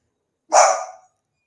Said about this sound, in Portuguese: Me desculpe que é casa com um cachorro é, é impossível não ter barulho.